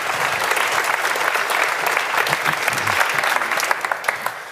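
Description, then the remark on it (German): A crowd applauds at the host's request as a guest arrives, a steady, dense wash of many hands clapping at once with sharper individual claps poking through, holding strong before tapering slightly at the end. “So, applaudiert mir, dann kommt er auch.”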